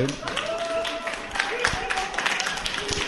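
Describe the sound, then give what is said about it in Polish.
An audience claps together in a steady, dense burst of applause, approving by acclamation, with a few voices calling out or laughing faintly underneath. “Dziękuję za poparcie. E... Przez aklamację, tak.”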